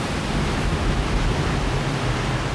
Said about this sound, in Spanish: El mar comenzó a girar en remolino y la balsa comenzaba a moverse en círculos.